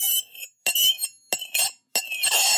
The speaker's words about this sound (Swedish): Vad är det för någonting? Är det en gaffel mot en tallrik? Nästan gaffel mot en kastrullbotten.